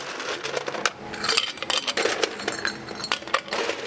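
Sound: ice cubes clinking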